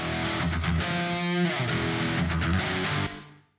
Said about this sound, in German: Ne, und du hörst tatsächlich, auf der rechten Seite ist jetzt der Nachhall und auf der linken Seite ist das trockene Signal von unserer Gitarre.